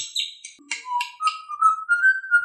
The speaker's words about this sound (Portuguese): E onde que fica esse pássaro? Ele fica na gaiola, dependendo da, da, do lugar que você esteja.